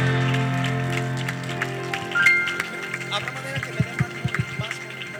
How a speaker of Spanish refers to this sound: Dale un fuerte aplauso a la gloria de Dios.